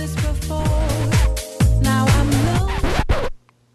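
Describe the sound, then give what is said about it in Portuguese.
Loud music with a steady beat plays for a few seconds, then a record is deliberately scratched and the track is cut off abruptly into near silence, as a demonstration of cutting a track. “Riscamos o disco e cortamos a trilha na seca.”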